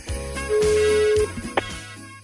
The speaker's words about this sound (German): Wir ziehen Ihre Bewerbung und Sie gehen spätestens nach dem dritten Klingeln dann auch ran.